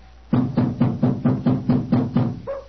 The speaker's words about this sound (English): He heard us that time. Yeah, about time. We must have been knocking here for five or six minutes.